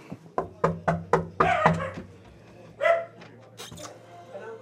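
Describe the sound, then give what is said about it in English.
A small dog named Thor barks sharply in a quick run of about six yaps, then lets out a couple more scattered barks over a low, steady background hum. “lives with a little dog named Thor.”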